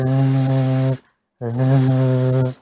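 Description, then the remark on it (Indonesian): A voice imitates the buzzing of a bee swarm with two steady 'zzz' hums, each about a second long, separated by a brief pause, demonstrating how to pronounce the Arabic letter zai. “E, seperti siulan burungnya itu, ya ini kan seperti apa namanya kerumunan lebah. Kerumunan lebah itu dia kalau kita dengarkan”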